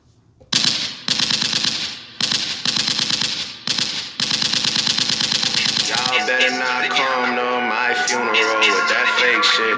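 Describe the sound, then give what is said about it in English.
Loud bursts of rapid gunfire, four or five rattling volleys separated by short pauses, followed by a dense harsh crackle with a voice-like tonal layer running underneath. “I let the shots off to let you know this is for you”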